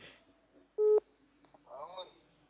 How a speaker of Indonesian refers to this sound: Diangkat gak sama dia? Ringing sih.